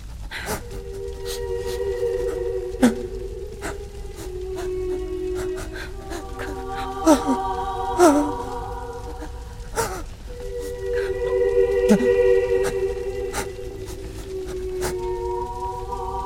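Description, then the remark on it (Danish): A man, the Moon Man of a story, groans in pain as a girl rubs his legs together, long, drawn-out moans that rise and fall over several breaths, fairly loud, broken by a few sharp clicks and knocks. “Månemanden stønner af smerte.”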